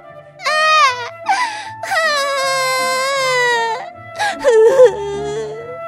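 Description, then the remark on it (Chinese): A girl, voicing the character Anne in a spoken story, wails and sobs loudly in despair after screaming and throwing herself onto a bed. Long, high, quivering cries are broken by short gasping sobs, the pitch rising and sagging over several seconds of unbroken, distraught crying without words. “她像是被遗弃一样的跌到绝望的谷底，而放声大哭。”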